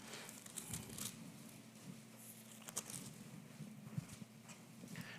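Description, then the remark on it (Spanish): Soft, continuous papery rustling and crinkling as many people turn the thin pages of their Bibles at once, with occasional sharper flicks over a low steady hum. “Se oye bonito las Biblias cuando sus hojas están caminando.”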